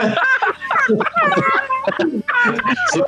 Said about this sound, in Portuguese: Já, já, é, já é os frangos desesperados aqui já.